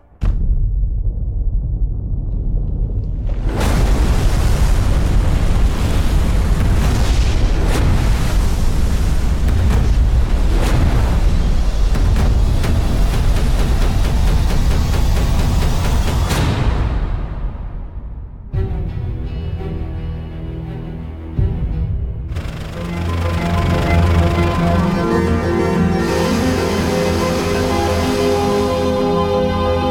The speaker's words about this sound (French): 100 mm en un peu plus d'une heure. C'est extrêmement intense. Là. Euh, la ligne d'orage était vraiment au-dessus de Montréal.